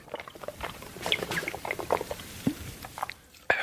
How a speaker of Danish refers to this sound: prøv lige at tage en skyller i munden.